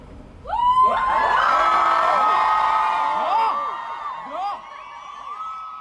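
A large crowd at a demonstration against student grant cuts at Universitetsplassen in Oslo, Norway, erupts into loud, sustained shouting and cheering, many voices overlapping in whoops and yells for several seconds before gradually tapering into scattered calls.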